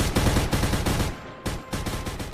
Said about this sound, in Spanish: En venganza, los mafiosos acribillan al hijo mayor de Vito, Sonny Corleone, ah. al que le dan unos 50.000 balazos para asegurarse de que quede fiambre, fiambre como pocholo.